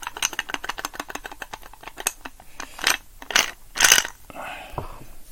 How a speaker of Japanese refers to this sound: 後ろでバタンバタン言ってるのは、あの、ガーデンルームのね、天井にね、あの、雨粒が落ちてる音ですね。じゃあ雨降ってんだよね、今。外が。